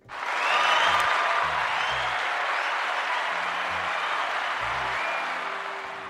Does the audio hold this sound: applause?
yes